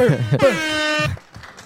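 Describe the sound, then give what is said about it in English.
A loud air horn sound effect blares in one sustained, buzzy, harmonic-rich blast lasting under a second, right after a short burst of voice, then quieter murmuring follows. “Hit the horn twice.”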